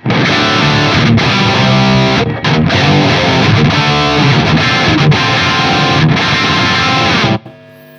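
A heavily distorted, high-gain electric guitar plays a dense, loud riff of about five to seven seconds, with the amp's gain knob set at ten o'clock. There are brief choppy breaks before it cuts off abruptly into a faint hum.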